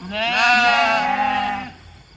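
A single sheep bleats loudly, one long wavering baa lasting about a second and a half before trailing off into quiet.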